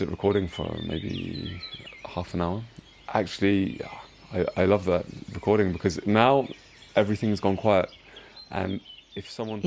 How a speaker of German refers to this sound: um Ostern herum haben ihn die Vögel jeden Morgen gegen 4.30 Uhr, 5 Uhr geweckt. Und one morning in particular, it was das klang wie im Regenwald. Und an einem Morgen hat er sein Fenster aufgemacht und die Vogelstimmen aufgenommen.